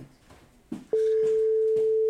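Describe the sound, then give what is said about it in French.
After a few soft clicks and faint background noise, a loud, steady telephone ringback tone comes in and holds unbroken to the end, an outgoing call that has rung about 18 times without being answered. “Ça fait 18 sonneries quand même, là, je pense que.”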